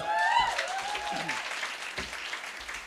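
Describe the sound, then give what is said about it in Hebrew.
An audience claps steadily in a dense, continuous wash of applause, with a few brief whistles or cheers rising above it early on, and no one speaking. “תגידו וואו מברוק לא סתם מחאנו לך כפיים”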